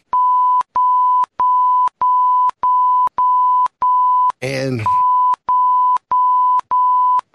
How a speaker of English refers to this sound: now I'm just hitting beeps to hit beeps.